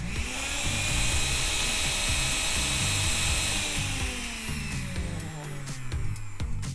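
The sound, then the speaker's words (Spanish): A kitchen blender runs steadily, blending mole poblano ingredients, a loud whirring motor with a high whine. Its pitch sags slightly partway through, and a few sharp clicks and rattles come near the end. No one speaks. “Cuando todos los ingredientes se estén integrando, pausa la licuadora, quita la tapa y salpimienta al gusto.”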